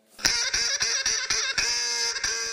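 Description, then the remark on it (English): A duck quacks loudly and rapidly, about eight nasal, raspy calls tumbling over one another in quick succession, with no voices or other sounds. “So, what's the opposite of a nuclear renaissance? It's the NRC Duck Report.”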